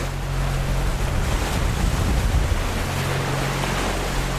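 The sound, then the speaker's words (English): Steady rushing wind and surging sea water surround a ship's deep, constant engine drone as heavy ocean swells of about seven to eight metres in the Drake Passage wash against the hull and rock the ship. The sound stays loud and unbroken, with no voices. “we had maybe seven to eight, eight metre swells.”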